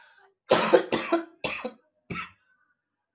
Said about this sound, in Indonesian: gara gara ngadung ngidul sama lu kan gue jadi batuk kan ya intinya ya emang gue kena covid gue ada covid jadi ya hati-hati aja gitu